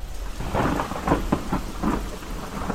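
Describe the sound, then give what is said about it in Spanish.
Heavy rain pours down steadily in Mexico City while deep rumbles of thunder roll underneath, a downpour lasting about an hour and a half outside the rainy season, a dense, loud wash of water with low booming swells and no voices. “Se dice que cuando el monolito entró en la Ciudad de México, comenzó el chubasco que duró cerca de hora y media, siendo que no era temporada de lluvia.”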